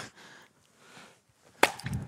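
A single sharp axe blow strikes a piece of wood with a knot in it, a bright cracking impact followed by a brief low thud, after a quiet stretch of faint outdoor rustle.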